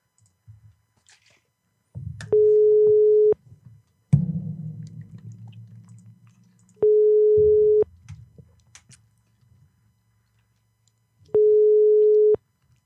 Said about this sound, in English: Does that mean it's ringing? Yeah.